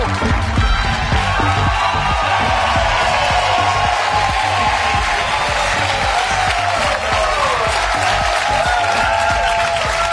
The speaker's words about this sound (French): Bonsoir mes jeunes à l'arrière qui savent pas s'ils veulent vraiment applaudir.